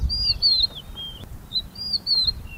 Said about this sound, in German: Wenn der Motor aus ist, sind nur die Vögel und der Wind in den Sträuchern zu hören.